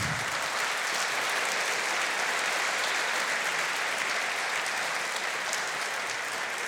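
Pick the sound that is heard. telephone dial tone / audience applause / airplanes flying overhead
audience applause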